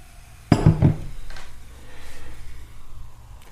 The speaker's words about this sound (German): So, bevor du dir deine Frage ziehst, lass uns doch schnell noch anstoßen. Anstoßen.